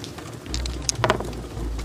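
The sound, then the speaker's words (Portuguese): Two dice are rolled, rattling and tumbling across a surface and landing on 5 and 2, a short burst of quick, sharp clicks and taps over a low, steady background hum, with no voices. “Ok, um dos dois rola dois dados então, um dado extra pela ajuda.”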